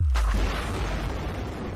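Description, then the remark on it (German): A single deep, booming seismic survey airgun blast with a sudden onset, followed by a long low rumble that lingers and slowly fades, heard on its own without any voices; such surveys fire a bang every 8 to 15 seconds, day and night. “Im Prinzip werden diese Seismic Surveys zum Teil wochenlang in bestimmten Gebieten gemacht. Das geht Tag, das geht nachts und das geht auch tatsächlich dann ein Knall alle 8 bis 15 Sekunden.”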